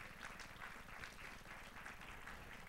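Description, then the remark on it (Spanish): A crowd applauding for the Lord during a sermon, a steady, dense wash of many hands clapping that holds evenly for the whole stretch at a fairly low level, with no voices standing out. “¿Cuántos le dan un aplauso fuerte al Señor?”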